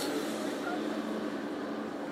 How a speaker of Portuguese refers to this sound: Vocês estão ouvindo agora um trem passar e nós estamos ao lado dos trilhos do trem.